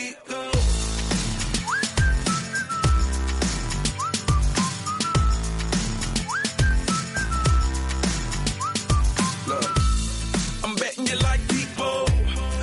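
A bright whistled melody repeats in short rising phrases over a steady, punchy drum beat and deep bass, sitting clearly on top of the music with no voices, from a song released in 2012.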